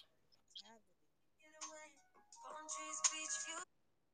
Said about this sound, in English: Sorry, I had a phone call.